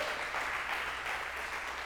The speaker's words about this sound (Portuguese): Dá um aplauso a Jesus aí, pelo amor de Deus.